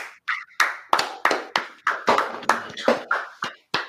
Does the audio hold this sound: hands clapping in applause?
yes